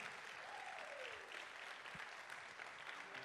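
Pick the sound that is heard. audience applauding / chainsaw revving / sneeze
audience applauding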